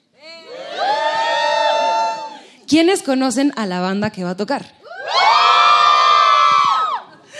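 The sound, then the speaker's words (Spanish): A crowd of concertgoers gathered in the lobby of the Sala Julián Carrillo at Radio UNAM erupts in loud, high-pitched cheering and shouting twice, with a man speaking briefly between the two bursts of excited yells. “tenemos aquí reunido en el lobby de la sala Julián Carrillo a todo el público que vino esta noche, ¿es verdad?”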